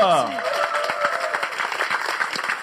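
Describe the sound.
Steady audience applause of many hands clapping at once, a dense crackling patter that holds at an even loudness throughout, with a brief tonal voice-like sweep at the very start.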